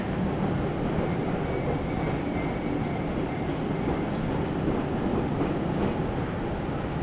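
An Izuhakone Railway Daiyūzan Line electric commuter train from Odawara, Japan, rolls in toward its final stop at Daiyūzan terminal, a steady, loud low rumble and clatter of wheels on rails with a faint thin whine, and no voices.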